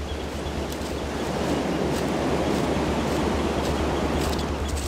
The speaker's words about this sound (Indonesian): Sekali lagi, suara ombak yang deras itu pecah tak seirama.